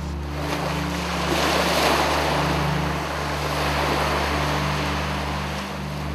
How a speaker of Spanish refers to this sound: En cambio, cuando el mar se enojaba, ponía voz de trueno El cielo se llenaba de nubes, el viento soplaba de todos lados y las olas golpeaban en el muelle con la fuerza de un relámpago.